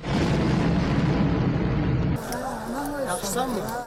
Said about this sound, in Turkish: Tam o sırada caddenin karşısındaki bir binaya Ermenistan füzesi isabet etti. Patlamanın şiddetiyle şok yaşayan Azerbaycanlı hemen yere yatarak kendini korudu.